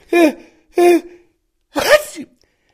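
A loud sneeze: two drawn-out voiced 'ah' intakes, then an explosive burst that trails off. It sounds somewhat theatrical, as if a voice is acting it out. No other sounds follow.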